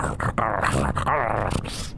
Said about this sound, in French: Puis quand tu relèves la patte, le loup glépit, puis commence à aboyer.